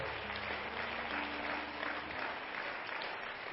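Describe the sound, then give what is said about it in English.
A church audience at First Pentecostal Church in Silsbee, Texas applauds its guests with dense, steady hand clapping that fills the church for several seconds, with a faint low hum underneath and no one speaking. “Why don't all the home folks give our guests a good hand clap today?”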